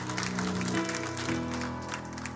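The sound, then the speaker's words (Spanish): An audience claps together for the Lord in a steady, dense wash of applause lasting a couple of seconds, with sustained low musical tones held underneath. “Dele un aplauso fuerte al Señor porque Él es bueno.”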